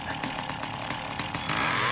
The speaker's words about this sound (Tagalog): Kahit yung mga magche-chainsaw, namamatayan daw ng makina.